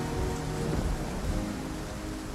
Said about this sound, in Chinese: 一直到外头闪电雷声大起，他才顿时回过神来。那天，他不但把收音机的声音刻意调大，当西北雨开始下起来的时候，他还去把音量的转钮又多转了半圈。